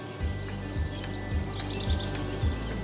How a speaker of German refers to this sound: Dieses Zwitschern im Hintergrund? So klingt der Frühling. Oh, ist das nicht wunderbar? Dieser Vogelgesang, der ist doch echt balsam für die Seele.